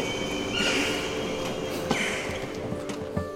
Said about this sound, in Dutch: En nu, mijn trein is binnengekomen.